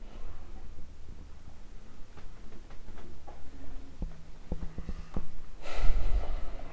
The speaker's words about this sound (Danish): Okay, så øh, når nu du sidder foran spejlet, så må du godt øh, prøve at lukke øjnene og tage et par dybe vejrtrækninger.